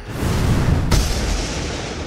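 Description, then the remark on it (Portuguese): A magical thunderball explosion from a chromatic orb spell, a ball of thunder that flies and strikes a specter: a deep rumbling build-up breaks into one sharp, loud crack, followed by a roaring, hissing wash of noise that lingers. No voices. “Ela bate explodindo, fazendo barulho na região.”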